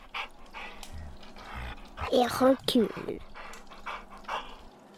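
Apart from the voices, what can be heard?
dog sniffing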